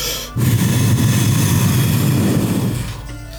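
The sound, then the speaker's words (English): A voice mimics the botched whistle of Croc, a turtle character who cannot whistle: one sustained, breathy rush of air with a rough, low flutter, lasting about two and a half seconds before tapering off, with no clear tone. “Croc comes in and he looks around and he tries to whistle, but he's a turtle, so he can't. So it just comes out like”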